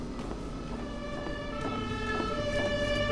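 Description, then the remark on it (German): An ambulance siren sounds continuously for a few seconds as the ambulance arrives at a hospital emergency department in the middle of the night after a car accident, its tones held steady and growing slightly louder, with a low rumble of traffic underneath and no one speaking. “Dann eine Sirene. An der Notaufnahme kommt ein Krankenwagen an.”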